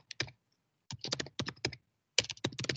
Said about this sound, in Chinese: 每次开会的时候，我很讨厌别人有键盘声。 哦，一边打字那很失礼。